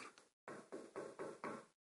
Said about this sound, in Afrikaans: En dan s'n klop agter die deur.